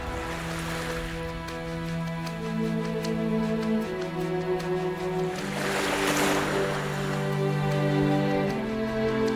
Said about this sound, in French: C'est le bruit monotone incessant de vagues sur la plage, à deux pas de notre hutte, et qui, joint à celui non moins continuel du vent parmi les arbres, nous rappelle sans relâche notre cruelle destinée.